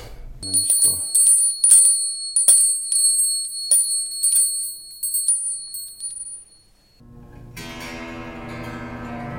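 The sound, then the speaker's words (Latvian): Small percussion bells are struck repeatedly in an uneven rhythm during a sauna sound ritual, their bright metallic tones ringing and overlapping, before fading out and giving way to a low, sustained humming drone. “Un dažādām perkusijām, vēl arī veids to skaņas pērienu.”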